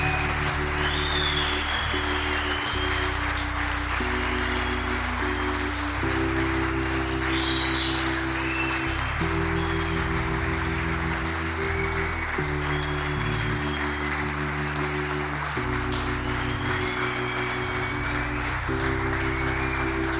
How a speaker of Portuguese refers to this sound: Você pode celebrar isso com uma salva de palmas? Celebre isso.